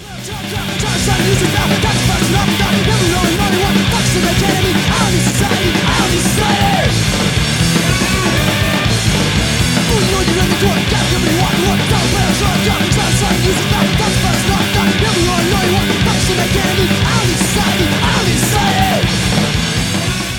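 A fast, loud crossover thrash hardcore punk song with dense distorted guitars and relentless pounding drums, blasting at a steady full volume throughout, with shouted vocals buried in the mix.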